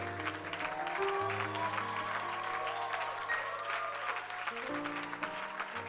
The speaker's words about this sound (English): One more time, could you give this crew a hand clap for all those that helped in the kitchen?